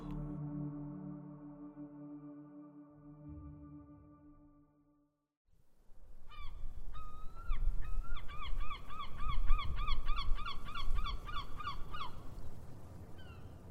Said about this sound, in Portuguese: acordou com o um barulho de gaivotas próximas à sua janela.